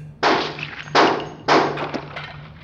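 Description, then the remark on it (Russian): Three loud, sharp gunshots of an execution by shooting crack out in quick, uneven succession, heard through soundproofing, each leaving a brief ringing tail, over a steady low electrical hum with no voices. “Думаю, Дмитрий, выстрелы вам были слышны даже через звукоизоляцию.”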